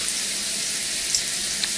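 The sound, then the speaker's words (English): Warm shower water runs in a steady, bright hiss, with a couple of faint splashy ticks and no voices. “All right, let's hop in the shower and I'm gonna clean you up, okay?”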